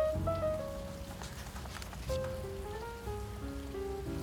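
Steady rain patters continuously outside a jazz café while mellow, jazzy instrumental music plays clear over it, with no talking.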